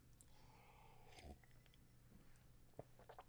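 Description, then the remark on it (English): A quiet sip of grape juice, a short slurping draw followed by soft mouth and swallowing clicks, with no talking. “Uh, this is grape juice, by the way.”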